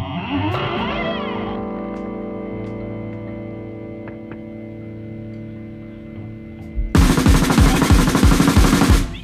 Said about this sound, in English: So let's listen to the retake then of … on the album.